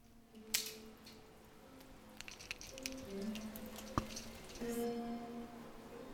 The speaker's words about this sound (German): In Center fällt ein gleichmäßiger Regen.